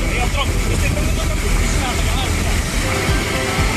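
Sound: rushing floodwater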